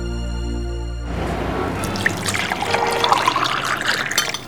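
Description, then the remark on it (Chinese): Tea is poured steadily into a cup in Tainan, Taiwan, for several seconds, a splashy trickle with a faint ringing tone that rises as the cup fills. A brief low, humming tone comes just before it. “泡一杯茶，在台南古都闹中取静。”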